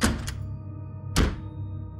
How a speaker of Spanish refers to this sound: El clic del cerrojo me tranquilizó y me apoyé en la entrada, ahora asegurada, por un momento, para recuperar el aliento.